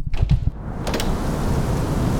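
Heavy rain pours in a dense, steady hiss, with deep low rumbles and a couple of sharp knocks near the start before the downpour settles into a constant roar.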